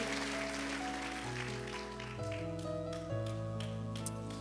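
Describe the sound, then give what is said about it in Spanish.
A church audience claps for the Lord at the close of a sermon, a dense, continuous patter of many hands blended with sustained keyboard chords that shift pitch every second or so, with no voices standing out. “Démosle un aplauso fuerte al Señor, por favor.”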